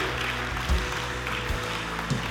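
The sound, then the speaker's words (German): The Move Church audience applauding during a service, a dense, steady wash of many hands clapping at once, sustained at an even moderate level for a couple of seconds with no voices standing out. “Komm mal, können wir mit dem Himmel einsteigen, Herr, und ihm richtig großen Applaus geben.”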